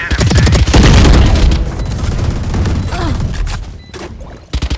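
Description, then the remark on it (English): Rapid bursts of video game machine gun fire from an Odin gun, loud and dense with heavy booming low end, rattling continuously for several seconds before tapering into scattered shots. “With that, uh, that gun is. I'm back. Odin. Odin. Odin, yeah.”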